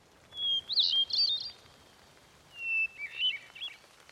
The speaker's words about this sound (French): Un peu plus loin, il y a une grosse pierre plate. Et cette pierre, je ne l'enlèverai jamais. Car c'est l'outil d'un oiseau particulier, la grive musicienne.